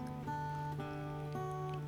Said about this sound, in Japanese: 屋根に雨が当たってバタバタ言ってますすいません。すいません。初めに謝っときます。